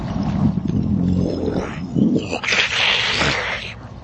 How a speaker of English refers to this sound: And as it looks, uh, as this, this creature looks down at you, you hear a second growl from uh, coming from your right.